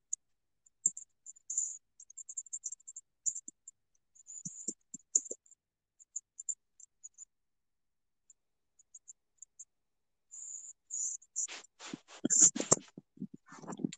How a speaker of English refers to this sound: I'm like so sorry if you guys hear me typing. Like I'm trying to talk to my friend while filming this podcast.